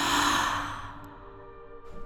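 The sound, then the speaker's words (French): A single soft, airy breath, like a faint sigh, heard under the point of a sewing needle, rising quickly and then trailing away over about a second, alone with no talking. “Sous la pointe de l'aiguille, un souffle de vie se fait entendre.”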